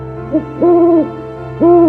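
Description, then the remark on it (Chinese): An owl perched on a tree branch hoots three times: a short, soft call followed by two longer, steady hoots with a gap between them. The tone is low and mellow, and no one speaks. “一阵寂静中，树枝上的猫头鹰说”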